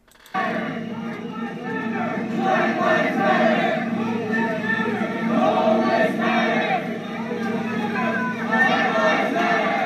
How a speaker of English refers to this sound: The guy chanting in the chant said, "All lives." They were like, "Black lives matter, Black lives matter." then he goes, "All lives matter." Then they went, "All lives matter, all lives."